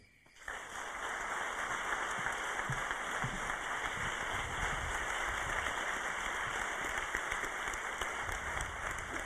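A large audience at an evening talk bursts into applause to welcome a guest speaker after a brief pause, and the dense, steady clapping carries on loudly for several seconds with no one speaking.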